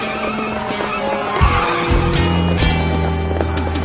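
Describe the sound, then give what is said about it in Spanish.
Car tires skid with a loud, sustained screech over a steady engine rumble as Mr. Robot turns the wheel and regains control of the car, the noise surging and wavering for a few seconds without any talking. “Mr. Robert gira el volante y controla el coche.”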